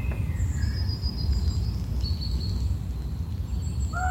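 Thin, high bird whistles and chirps drift in and out over a steady low outdoor rumble, like a forest ambience with no one speaking.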